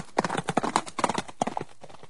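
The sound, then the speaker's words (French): A horse gallops, its hooves beating out a quick, steady clip-clop rhythm of sharp, hollow knocks that continues for about two seconds with no one speaking. “Et il galope jusqu'au pays d'à côté.”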